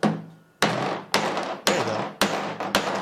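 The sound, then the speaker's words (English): A regular hammer pounds on a two-by-four wooden board in about six loud strikes at a steady, quick rhythm, each sharp blow ringing briefly before the next, and the two-by-four snaps in half; no one is talking. “and the two by four just snaps in half.”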